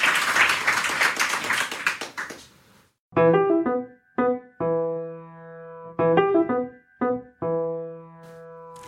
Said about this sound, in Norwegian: Før det, før vi tar spørsmålene, så vil jeg bare si tusen takk, Ole, og en, få en liten applaus til Ole.